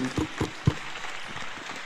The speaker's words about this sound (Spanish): ¡Aplauso! fuerte, fuerte!